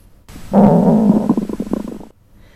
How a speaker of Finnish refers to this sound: Nämä ovat aika merkillisiä ääniä, mutta kaikille tuttuja. Suunnilleen tällaista kuulee, kun laittaa korvansa kaverinsa vatsan päälle ja alkaa kuunnella. Vatsanpeitteiden läpi kuuluu kuplintaa ja mahalaukun vääntelemistä.